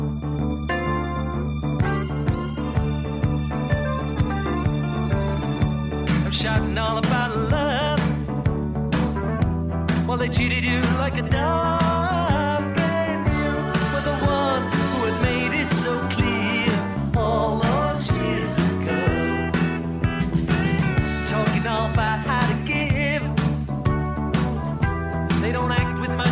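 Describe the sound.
An upbeat 1980s-style pop rock song plays loudly throughout, a male lead vocal singing over bright guitars, bass and a steady driving drum beat.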